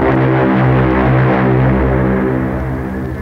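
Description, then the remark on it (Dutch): A deep foghorn blows one long, steady, droning blast that fills the whole moment, loud, its low rich tone holding without a break and fading only slightly at the end. The foghorn blows at regular intervals, once every 15 seconds. “En de misthoorn blies met regelmaat. Elke 15 seconden eenmaal.”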